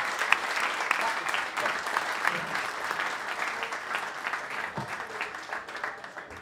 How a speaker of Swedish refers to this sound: Med det så tycker jag att ni tar era händer och klappar och vi säger lycka till i vinter,